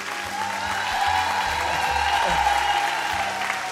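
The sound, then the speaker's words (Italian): Sustained applause from a large audience at the opening of the show Parole Parole Storie di Canzoni, the first and longest applause of the evening, a dense, steady wash of clapping that fills the whole stretch at a fairly loud level, with a faint murmur of voices mixed in. “Il primo applauso, il più lungo”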